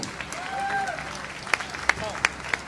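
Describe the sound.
An audience applauds with steady, dense clapping that fills the room, punctuated by a few sharper, louder claps near the end, with some voices and whistle-like tones mixed in.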